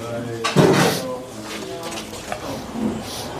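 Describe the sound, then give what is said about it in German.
A door handle clicks and the door swings open with a short rattle as someone carries coffee, followed by faint clinks of cups and dishes, with indistinct voices murmuring in the background. “ich, ähm, kannst du die Tür auf, dann nehme ich, ich den Kaffee.”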